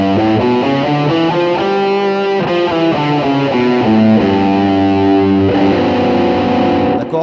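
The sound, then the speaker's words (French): A distorted electric guitar plays the natural harmonic series of a string in G as a scale, a steady run of about a dozen bright, sustained notes stepping through pitches, loud and alone with no talking. “Et si jamais on analysait, si notamment la corde était assez grosse pour qu'on puisse analyser tout ça, on aurait une gamme qui ressemblerait à ça.”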